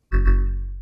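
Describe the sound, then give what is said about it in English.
A single electronic alert tone, signalling that recording is about to start, sounds on its own, a steady, rich chime lasting under a second that fades slightly before cutting off with a small click. “Nope, that's the sound of we're going to start recording.”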